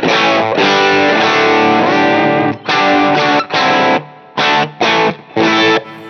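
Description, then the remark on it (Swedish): An electric guitar plays through an overdrive pedal, giving a thick, gritty, sustained tone in several strummed phrases with short pauses between them, loud with no talking. “Så låter det overdriven.”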